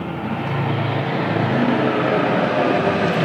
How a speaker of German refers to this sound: Auch größere Hubschrauber fliegen vorbei. Genau.